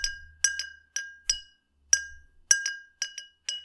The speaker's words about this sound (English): Got a glass jar. Green crayon in my hand. Empty glass jar. Don't know where it came from.